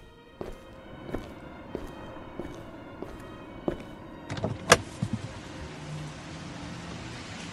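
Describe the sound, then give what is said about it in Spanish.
Steady footsteps walk to a car at an even pace, about one step every half second, followed by a cluster of clicks and a sharp car door latch sound, then a low steady hum. “Poco después se dirigió a su carro.”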